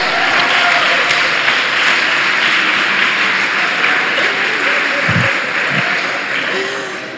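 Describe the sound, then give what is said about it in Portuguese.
A church audience applauds the Lord together, a dense, steady wash of clapping that holds strong for several seconds and tapers slightly at the end, with a few voices faintly mixed in. “Eu digo, aleluia, glória a Deus, aplauda o Senhor.”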